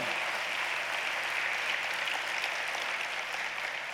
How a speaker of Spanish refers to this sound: ¿Cuántos creen que hay una puerta abierta hoy? Así que active su fe, denle un aplauso al Señor.